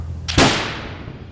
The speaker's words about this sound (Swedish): Och Ja, men då plötsligt så hör jag en, skottet av en Kalashnikov.